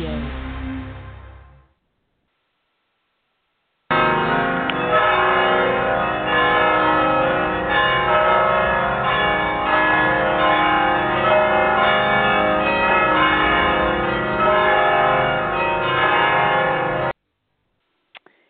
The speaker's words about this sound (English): aren't those bells just wonderful? I'm going to be starting every show that I'm doing in this particular series with the bells. They're from the San Juan Capistrano Mission in California